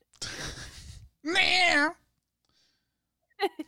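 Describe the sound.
A person imitates a dying cat: a breathy, raspy exhale, then a loud, strained wail with a wobbling pitch. After a pause comes a short spoken word and a brief laugh.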